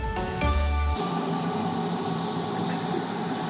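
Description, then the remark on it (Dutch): A brief tonal jingle gives way to a steady, even hiss of water running and spraying inside a Philips hand washer-dryer that washes and dries hands at the same time, continuous, with no voices. “Je hoort een eh, klein beetje water op de achtergrond en het wordt weer wat rustiger.”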